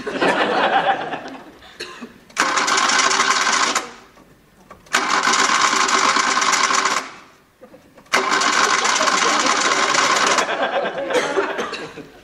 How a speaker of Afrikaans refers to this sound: As hierdie kar nie nou start nie, is my naam JR Yui.